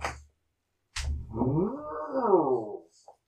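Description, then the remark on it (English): A person imitates a cow's moo: one long, drawn-out lowing tone rising and falling over about two seconds, loud, preceded by a brief breathy noise and ending with a small click. “was my Cow noise? that was my cow your noise of appreciation.”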